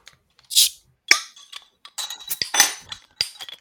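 A bottle of orange, unfiltered 5.2% beer is opened, followed by a series of bright glass clinks and clatters, with several sharp ringing knocks spread over a few seconds and no talking.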